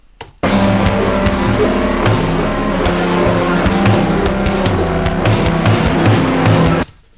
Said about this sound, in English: So that is the whole track slowed down by half.